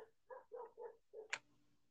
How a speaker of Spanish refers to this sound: Y ya empezaron los perros. dale, dale. y apenas son las 10, ni siquiera es medianoche para que empiecen.